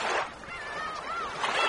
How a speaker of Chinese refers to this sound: 这是大海的声音